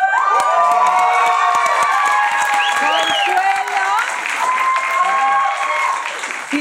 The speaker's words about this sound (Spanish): Oigan, yo quiero empezar este programa pidiendo un aplauso